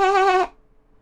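A voice imitates a sheep's bleat: one loud, nasal, slightly wavering "maa" lasting under half a second, then quiet.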